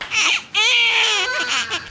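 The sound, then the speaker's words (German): An infant wails loudly in two sustained, high-pitched cries with wavering harmonics, separated by a brief catch of breath, with no talking over it, in a busy hospital maternity ward in the town of Matubani, India. “Es ist viel los auf der Geburtsstation dieses Krankenhauses in der Stadt Matubani.”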